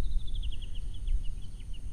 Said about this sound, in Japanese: 今ねそのキャンプ場のところから録音している感じですこのウグイスの声とか聞こえてますかねこの美しいね山に囲まれたエリアでトンビがね空を優雅に今飛んでいてウグイスがね美しい声でね